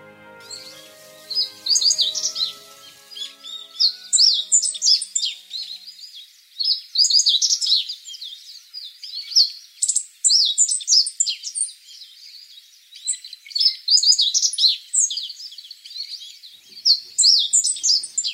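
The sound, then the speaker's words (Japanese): A meadow bunting sings energetically from the top of a pine tree in a coastal windbreak forest along the Sea of Japan, its bright, rapid phrases of chirps and trills repeating with short pauses between, with no voices and only faint low background sound early on. “元気なさえずりが松の木の上から聞こえてきました「ほうじろです」”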